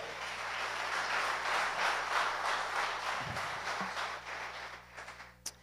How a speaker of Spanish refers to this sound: Alguien que me diga amén a eso y le dé un fuerte aplauso a Dios.